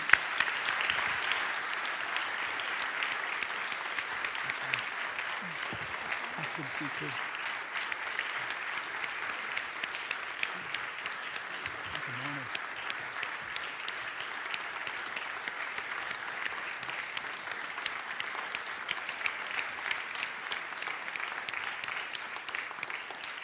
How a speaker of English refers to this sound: Can we real quick give them a round of applause for what they're doing in our community?